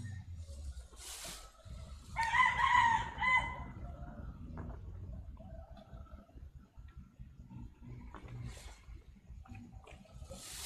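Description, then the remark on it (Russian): A rooster crows once, a clear rising-and-falling call standing out over a steady low rumble of outdoor background noise, with faint distant thumping of party music and stirring throughout. “Петухи только.”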